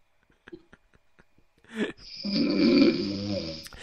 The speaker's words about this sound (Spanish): A ese ronquido. Un dragón, esa weá. Está Ese, ese, ronquido sale con flema de todas maneras.